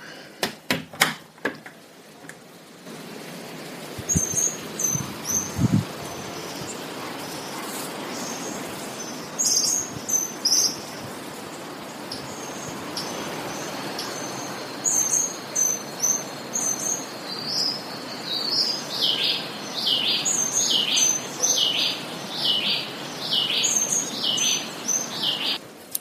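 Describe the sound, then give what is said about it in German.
Outdoor dawn ambience at sunrise outside a house in Panama, with roosters crowing and repeated high, bright bird chirps and trills in short bursts, growing busier toward the end over a steady soft background hiss; no one speaks. “hört also noch die Hähne krähen und viele tolle Vögel.”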